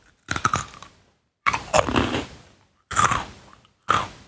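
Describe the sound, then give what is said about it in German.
Loud crunchy bites into a crisp snack, four bursts of crackling chewing separated by short pauses, with no talking. “dann würde ich sagen, der erste Crunch gehört dir,”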